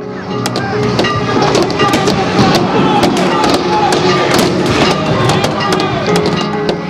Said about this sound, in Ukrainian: Я згадую бой бочок. Идет ритмические мощные удары о, об столбы, об огорожу обо всем, бочки, запах Майдана.